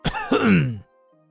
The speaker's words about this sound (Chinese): 见夫人不配合自己，温体仁只有尴尬的咳嗽了一声。